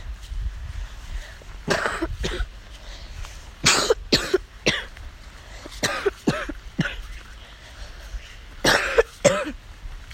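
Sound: coughing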